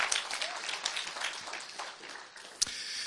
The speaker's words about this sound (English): You could clap by all means. That's exceptionally good news.